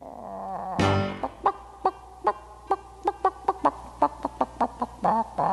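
A chicken squawks loudly once, then breaks into a steady run of short, sharp clucks, about a dozen in quick rhythmic succession, clear with no voices.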